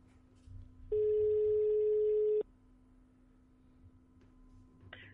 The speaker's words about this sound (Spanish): vamos a hacer esa, llamada. Vamos a ver si tenemos suerte. A ver. Vamos a intentar a ver, marcar ya el teléfono.